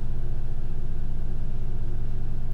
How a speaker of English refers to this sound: Do you hear my washing machine? It is shaking my house. I don't know. Yeah, you can hear it. I know you can.